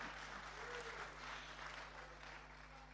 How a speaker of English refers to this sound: Can we just first of all give a good clap to my glamorous assistants? Thank you very much. Thank you.